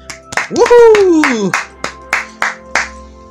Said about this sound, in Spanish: Un aplauso para ellas en este 8 de marzo, por las que fueron, las que están y las que vendrán. Aplauso para ellas.